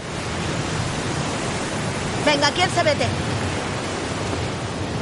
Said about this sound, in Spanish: En la playa hay bandera roja. El mar está encrespado.